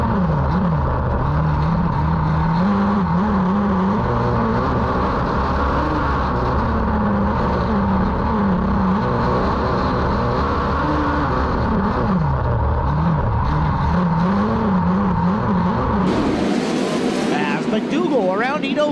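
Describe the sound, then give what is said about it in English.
Race car engines roar loudly and continuously, their pitch surging and falling as the cars circle the dirt track, including Jason McDougal's black car with the red tail tank moving to the low groove in second position, with a sharper high-pitched whine rising near the end. “McDougal shooting to the low groove. He's already in position number two.”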